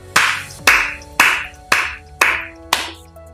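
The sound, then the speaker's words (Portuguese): Six loud, evenly spaced claps ring out about half a second apart, each with a bright crack and a short reverberant tail. No voices are present. “Palmas. Aí, Thiago. Palmas.”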